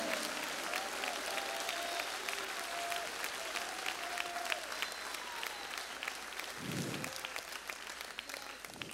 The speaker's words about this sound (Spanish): dale un aplauso fuerte, dáselo, bien fuerte. Eh, él se lo merece.